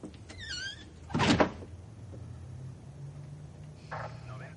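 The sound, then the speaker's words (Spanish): In a Spider-Man story, Mary Jane forces a door open with difficulty: a strained, creaking squeal, then a loud scraping rattle, followed by a quieter squeak as it settles, over a low steady hum. “Mary Jane suspira y se va con impotencia abriendo la puerta con dificultad.”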